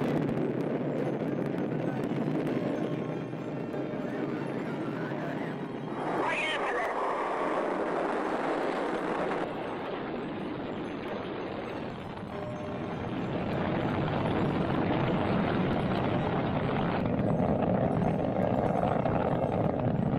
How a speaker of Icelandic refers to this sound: Klukkan 7 minútur yfir 9 að moskutíma, 7 minútur yfir 6 að íslenskum tíma, voru eldflögnar ræstar og Vostok 1 tókst á loft upp í bláan heiminin.